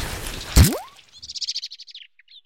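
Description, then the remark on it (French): A blackbird tugging at an earthworm gives a quick, clear run of about a dozen sharp chirps after a brief dull thump; a couple of fainter chirps trail off at the end. No one speaks. “Le lombric se débat comme un beau diable il se tortille sur tous ses anneaux, mais le merle ne veut pas lâcher.”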